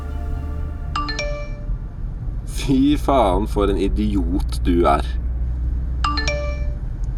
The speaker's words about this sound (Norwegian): Eh, og da tror jeg det peip i telefonen min mer eller mindre kontinuerlig, da. Med SMS-er.